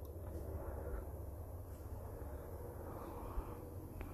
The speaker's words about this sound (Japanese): すごいあの外でねずっとさっきからヘリコプターが飛んでてもしかしたらちょっと音が入ってるかもしれませんが今日もまあ別に部屋で撮ってるんであれですが